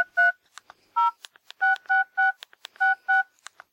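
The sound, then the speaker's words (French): A phone keypad beeps out about seven short dual-tone presses at an uneven typing pace as a man types a text message to his professional network, with faint key clicks in between, clear with no voices. “Il envoie illico un texto à son réseau.”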